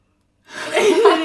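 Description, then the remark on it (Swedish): After a moment of silence, a single breathy yawn swells up during a breathing exercise, ending in a wavering voiced groan that rises and falls. “jag kan ju inte göra en sån andningsövning utan att börja gäspa Ja, så ja, men det är väl att din kropp alltså, slappnar av.”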